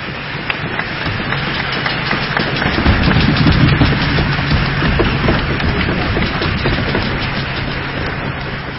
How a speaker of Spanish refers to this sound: Recibimos nuevamente, porque ya estaba aquí tocando, pero ahora como solista con un fuerte aplauso